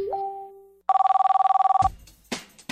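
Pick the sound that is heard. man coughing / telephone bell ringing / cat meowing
telephone bell ringing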